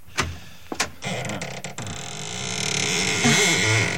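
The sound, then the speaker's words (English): A couple of sharp clicks from a latch as a door that sticks is unlocked with a key, then a long, grinding creak as the stiff door swings slowly open on dry, unoiled hinges, its pitch wavering and straining louder toward the end. “It doesn't sound as though that door had ever been opened.”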